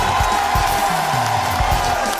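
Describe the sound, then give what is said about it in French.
A large audience at an open-air theatre in Carcassonne, during the Carcassonne festival, applauds and cheers at RTL's Les Grosses Têtes show: a dense, steady roar of clapping with scattered shouts and low thumps, loud and unbroken from start to finish. “Nombreux pour applaudir une grosse tête”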